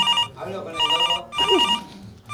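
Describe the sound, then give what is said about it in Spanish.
A telephone rings in repeated bursts of a bright, buzzy electronic tone, with short gaps between them, as an outgoing call is placed live, heard clear while faint voices murmur underneath. “voy a llamar en vivo.”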